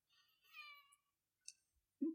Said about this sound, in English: Hello, Kitty. Oh, that is Scout making making her appearance. I hope our listeners can hear the cat. We brought our cats camping with us because we have to go cat camping.